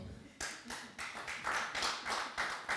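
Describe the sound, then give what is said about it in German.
An audience breaks into clapping after a brief quiet moment, a dense patter of many hands that swells and stays steady and fairly loud until the end. “Wir müssen nicht klatschen.”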